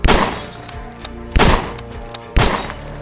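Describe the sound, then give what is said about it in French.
Three loud rifle shots ring out about a second apart, fired through the door and windows of a house, each a sharp blast with a crackling tail like wood and glass shattering, plus a few smaller knocks between them. “Clyde relève son fusil, il se met à tirer à travers la porte et les fenêtres.”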